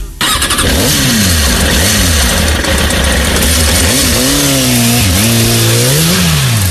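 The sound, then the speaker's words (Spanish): Peter Fonda and Dennis Hopper start their motorcycles, the engines starting up and revving loudly, their pitch swooping up and down in repeated throttle bursts over a steady rumble, with no voices. “Peter Fonda y Dennis Hopper arrancan sus motos y esto es lo que suena.”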